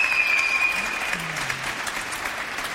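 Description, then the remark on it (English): A live audience claps steadily for a special guest at the end of part one of a show, a dense wash of many hands sustained at even loudness throughout, with a faint high tone briefly ringing at the start. “And please give a round of applause to our very, very special guest.”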